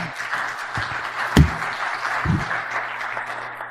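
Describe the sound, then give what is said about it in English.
On Palm Sunday, a crowd applauds a man for coming up, with steady, dense clapping across the whole stretch, punctuated by a couple of louder low thumps, with no one speaking. “That, so give him a round of applause for coming up.”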